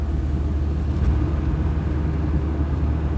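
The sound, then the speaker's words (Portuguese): Steady low engine rumble from inside a moving car, a constant droning hum with faint road noise, even and unbroken throughout, with no voices. “Ah, é verdade, é porque eu tô sozinho no carro.”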